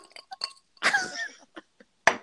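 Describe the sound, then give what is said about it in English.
Ice clinks lightly in a water glass in a few quick, faint taps, broken by a longer, rough, breathy sound in the middle, then one sharper clink at the end. “Oh, that's the ice in my water glass.”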